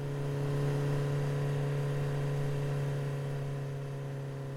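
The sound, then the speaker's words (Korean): A motorcycle ridden at well over 170 km/h through Yeongdeok, Uljin, Samcheok and Donghae in South Korea holds a loud, steady high-speed engine drone, its pitch barely shifting, with a wash of wind and road noise and no voices. “시속 170km를 훌쩍 넘겨버린다.”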